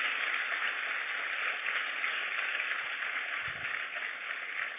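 An audience applauds Jesus loudly and steadily, a dense wash of clapping hands that holds at the same level throughout, with no voices rising above it.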